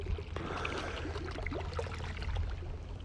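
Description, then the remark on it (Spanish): Continuous gentle water sloshing and lapping, steady, with soft splashy trickles and a low background hum throughout, from the swimming pool of a luxury hotel in Mexico City. “Esta mañana es el agua de una alberca, de un hotel de lujo de la Ciudad de México”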